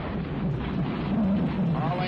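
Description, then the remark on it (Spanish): A loud, continuous low roar of a rocket's engines igniting at launch, all engines running with about 32 million horsepower of thrust, thundering through the whole stretch, with a countdown voice faintly audible underneath the rumble. “Iniciando secuencia de ignición. 5, 4, ignición.”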